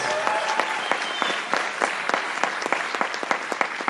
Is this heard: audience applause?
yes